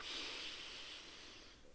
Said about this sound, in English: And what we're going to do first is just to start drawing attention to your breathing. So, to start off with, you're just going to breathe in through the nose